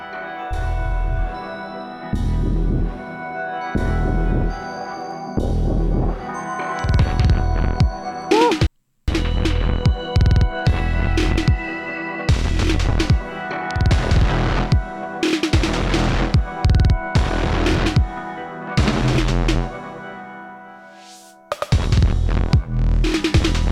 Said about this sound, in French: Dubstep Dubstep Bref. Un truc volontairement agressif.